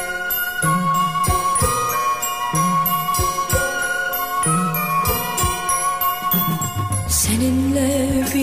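Instrumental intro of a Turkish pop song, with a steady pulsing bass beat under sustained melodic instruments that swell and change near the end. No vocals yet, loud and full throughout.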